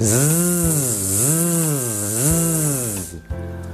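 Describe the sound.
A voice imitates a buzzing mosquito with a steady, hissy zzz, a blend of S and Z sounds, done as a voice exercise before speaking; its pitch swoops down and up in slow waves for about three seconds before cutting off.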